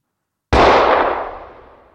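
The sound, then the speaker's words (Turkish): A single loud gunshot cracks out after a brief silence in a packed public square during a May Day rally, its sharp blast trailing off into a long, rumbling echo with no voices present. “bir el silah sesi duyuldu. Birkaç saniye sonra iki el daha ateş edildi.”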